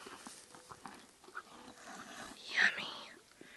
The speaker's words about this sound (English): Gosh, I love that crunch. That crunch noise is so satisfying.